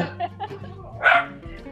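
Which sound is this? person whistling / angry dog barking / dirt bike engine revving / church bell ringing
angry dog barking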